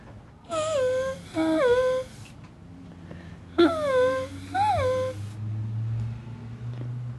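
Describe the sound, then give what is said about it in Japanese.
A voice imitates the running sound of an electric train on the JR Tokaido Main Line, making four whining, tonal bursts in two pairs, each with sliding pitch like a motor winding up, over a low background hum. “鉄道が好きになったきっかけは JR 東海道本線を走る電車の走行音やドア音が好きだったからです。ここで真似をします。”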